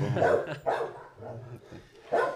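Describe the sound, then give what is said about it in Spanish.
A dog barks at something unseen, repeatedly in loud, rough bursts, about four barks spaced unevenly with brief pauses between, dominating the short recording. “No, pero lo que está, lo que está pasando ahora mismo, que ella está barking at algo que yo no puedo ver, cosas así me friquean tanto.”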